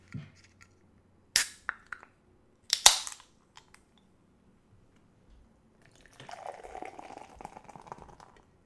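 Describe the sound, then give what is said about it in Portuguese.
A beer called Fear is opened with two sharp cracks and a brief hiss, followed after a pause by a steady, fizzing pour lasting a couple of seconds. No one speaks. “Vamos lá, vamos abrir. Ah, deixa o som pro pessoal que gosta de ouvir, hein?”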